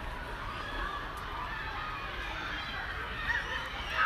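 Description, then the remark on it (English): A steady wash of small children's shrieks and shouts, like a busy playground, blending into a continuous noisy crowd din with occasional higher-pitched cries rising above it. “nothing, just children screaming”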